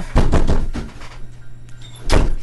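A door opens as someone arrives: a quick cluster of rattling thumps from the handle and frame, a short lull with a low hum, then a louder bang as it swings open.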